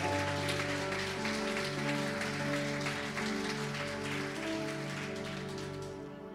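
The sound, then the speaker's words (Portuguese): An audience applauds the Lord in a steady, dense wash of clapping that lasts throughout, with sustained keyboard chords playing underneath and the sound tapering slightly at the end. “Vamos aplaudir o Senhor, vamos juntos, vai.”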